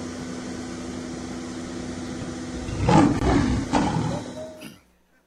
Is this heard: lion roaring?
yes